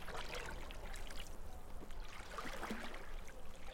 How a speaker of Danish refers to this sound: Lyden af det rolige vand og fuglene, der synger i træerne, gør Give helt træt.